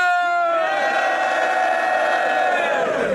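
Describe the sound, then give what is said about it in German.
A large crowd at a battle event roars and cheers loudly for a competitor from Nuremberg, many voices shouting together in a sustained, unbroken wave of noise that holds steady for a few seconds before tapering slightly at the end. “Macht Lärm für”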